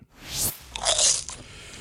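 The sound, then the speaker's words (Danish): Crisp crunching of popcorn being chewed, with two bright, crackly bites and a brittle rustle in between, loud and alone without any voices. “Så er der fodbold og popcorn.”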